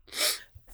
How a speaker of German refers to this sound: Gesundheit